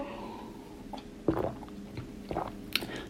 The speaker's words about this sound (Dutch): En ik pak even een slokje water tussendoor